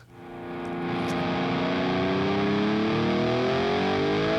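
A loud, heavily distorted rock guitar fades in and sustains, its thick harmonic drone gliding slowly upward in pitch, with no vocals.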